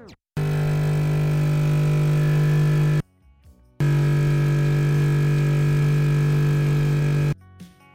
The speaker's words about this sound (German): Also nahmen wir einen Pitch-Plugin als Insert-Effekt und pitchten die Kaffeemaschine um die Abweichung zum G nach unten. Ihr hört nun zuerst die Kaffeemaschine out of tune und dann die Kaffeemaschine in tune im AB-Vergleich.